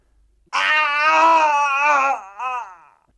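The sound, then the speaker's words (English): A dying person's scream: one long, loud, anguished wail that wavers in pitch, breaks off, then trails away in a shorter, weaker cry. No talking, only the voice alone. “It was the cry of a person at the moment of death.”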